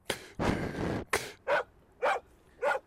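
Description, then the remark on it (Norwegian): A dog barks several times in quick succession outdoors in Norwegian nature, starting with a couple of rough, drawn-out barks followed by three shorter, evenly spaced yaps, moderately loud. “Øy, det er en hund.”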